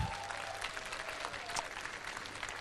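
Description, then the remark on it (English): A crowd claps to the Lord in the morning after a prayer, in steady, dense applause, a continuous wash of many hands sustained for a few seconds at moderate volume, with no voices standing out. “Come on, can we give a good clap to the Lord this morning?”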